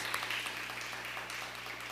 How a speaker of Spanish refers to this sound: Vamos a darle un fuerte aplauso al Padre por sus fiestas.